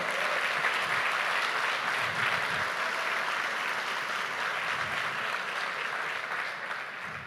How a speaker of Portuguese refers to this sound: Vai aplaudir a Jesus, vai na fé.